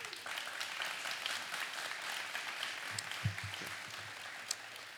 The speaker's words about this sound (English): And I think whoever started that applause probably wants to date one of you young men. I'm just saying. I don't know. It sounded like a, a light clap.